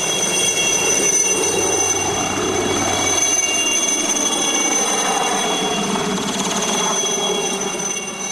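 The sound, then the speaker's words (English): A helicopter powers up and sets off, its loud, steady engine roar and whirring blades stirring rushing rotor wash and wind, with a high turbine whine running throughout and no voices. “And I watched as the blades began to whir and the wind blew up and they blew the tears off my face as the helicopter set off to the place I wanted to go.”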